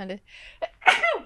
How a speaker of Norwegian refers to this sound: Eh, nå må jeg nyse.